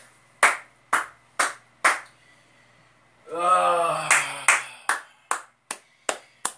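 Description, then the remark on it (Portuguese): A single person claps hands in a steady, even rhythm, about a dozen sharp claps, briefly joined midway by a loud drawn-out vocal exclamation before the clapping carries on. “Uma salva de palmas, cara.”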